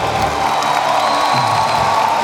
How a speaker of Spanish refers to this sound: Un aplauso Jesús. Give Jesus a hand clap.